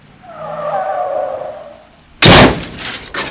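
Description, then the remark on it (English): Car tires screech in a long, wavering skid for about two seconds, then a loud crunching crash hits, followed by a smaller clattering impact moments later, a minor accident on a street flooded by a burst water main near an installation's main gate on a Monday morning. No voices. “The initial burst of water causes a minor accident on the scene that is complicated by hundreds of gallons of water spilling onto the street.”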